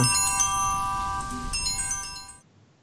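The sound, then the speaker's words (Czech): A small bell rings with bright, sustained metallic tones, struck again about halfway through, then cut off abruptly into silence. No one speaks. “No, e, takže zazvonil zvoneček a tak dále.”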